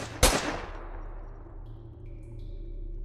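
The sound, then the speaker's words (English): A single sharp, loud pistol gunshot cracks out near the start, then rings off into a fading tail over a steady low hum, with no one talking. “I'll just shoot him with my pistols then.”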